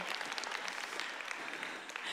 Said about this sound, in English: I am eight months pregnant, so if you want to clap, okay, thank you.